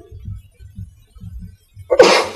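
A single loud sneeze bursts out at the end, sharp and breathy, after a couple of seconds of soft, low rhythmic thumping. No one speaks.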